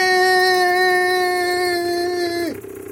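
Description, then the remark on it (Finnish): A snowmobile engine runs loud with a steady, buzzing drone, then its pitch suddenly sags as it throttles down near the end. “Oletko muuten ennen ajanut moottorikelkalla?”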